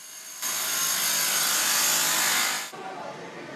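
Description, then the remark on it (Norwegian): A loud, steady burst of construction drilling rings out for about two seconds in L'Aquila, Italy, a city being rebuilt after an earthquake, then cuts off sharply, leaving quieter machinery noise from cement trucks and excavators rumbling in the background. “Dette er lyden som innbyggerne i den italienske byen har levd med i syv år.”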